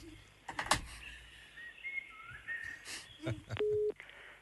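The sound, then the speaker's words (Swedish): Thin, wavering bird whistles chirp over a muffled telephone line during a call to Sturebadet, with clicks and faint background noise, ending in a short steady electronic tone. “Det är en jävla fågel som...”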